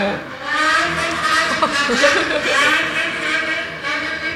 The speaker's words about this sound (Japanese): 今ね何が起こってるかというと目の前の道路を爆音で通り過ぎたバイクが やんちゃな子がいた感じでしたね